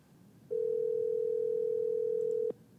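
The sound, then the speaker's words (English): A steady telephone dial tone hums loudly for about two seconds as a call is placed, then cuts off abruptly, with faint background hiss around it and no one speaking. “Um, but uh, I'm going to call the next person, but at the same time next week.”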